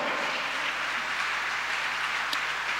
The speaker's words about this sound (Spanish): Si lo crees, dale gloria a Dios, amado hermano. A su nombre sea la gloria. Dale un aplauso a Cristo por eso.